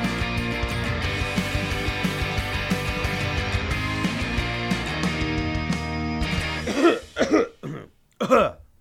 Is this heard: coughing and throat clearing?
yes